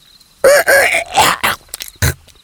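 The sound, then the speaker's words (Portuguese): A human voice tries to imitate a rooster's crow but breaks into a hoarse, sputtering croak and throat-clearing, a few strained, raspy bursts over about two seconds, loud. “Ih, me desculpem, deu um pigarrinho.”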